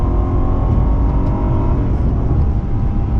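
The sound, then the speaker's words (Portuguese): A naturally aspirated car engine with a six-speed Steptronic gearbox in second gear runs loud, its deep, steady roar holding at high revs for a few seconds, with no voices over it. “É um carro com muito torque. São cerca de 50 kg de torque a 3.400 giros, carro motor aspirado.”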